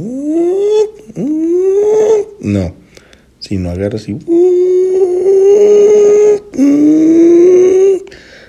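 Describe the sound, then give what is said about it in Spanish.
A voice imitates a motorcycle engine over-revving between gear changes: two loud rising whines, brief speech, then long strained buzzing tones held at a high, steady pitch. “un cambio en la moto, es decir, lo hiciste muy, muy, muy largo, estás encargando mucho la moto entre cambio y cambio. No, no sé cómo definirlo mejor, pero vamos a hacer una onomatopeya de esto.”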